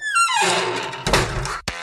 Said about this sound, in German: Klopf, klopf.